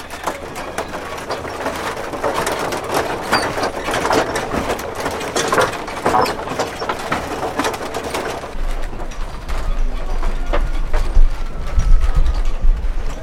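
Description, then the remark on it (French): Wooden creaking and knocking with a steady mechanical rumble as people walk a treadwheel crane after its brakes are released; a deep low-frequency drone swells in toward the end. “Alors on enlève les freins et on va marcher”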